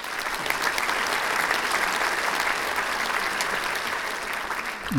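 A crowd applauds steadily, a dense wash of many hands clapping at an even, moderately loud level that holds throughout without any voices.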